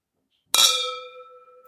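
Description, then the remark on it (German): A single bright glassy clink, clear, with a long ringing tone that slowly fades out. No voices, just the resonant chime of very large red wine glasses touching in a toast. “Wirklich sehr große Gläser. Ich glaube, man hat das am Klang gehört.”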